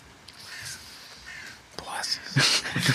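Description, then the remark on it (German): Harsh, raspy crow caws, a few scattered calls early on, then louder, rougher cawing near the end over a faint breathy background. “passen hier die Krähen hier wieder zu.”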